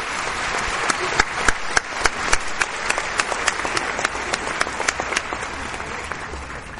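Sustained audience applause welcoming a lecturer at a Spiritist event, a dense wash of many hands clapping with sharp individual claps popping out, steady in loudness for about seven seconds with no talking over it.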